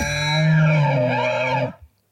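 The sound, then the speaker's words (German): An elk bellows once, a loud, raw, sustained roar with a buzzy harmonic tone and slightly wavering pitch, lasting nearly two seconds before breaking off abruptly. “Das ist das äh, Erfolgsgrölen. Röhren.”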